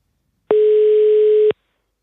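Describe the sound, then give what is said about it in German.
A single steady telephone tone, roughly one second long, starts and stops abruptly, clear with no voices around it, heard while placing a phone call to two-time Ironman world champion Patrick Lange. “mit dem Sieger dieses ersten Virtual Race von Ironman, äh, nicht des Gesamtrennens, sondern des äh, des ähm, Radparts äh, telefonieren wir jetzt”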